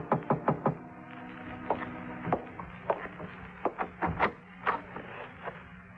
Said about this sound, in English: At a quarter of eight, there was a knock on my door.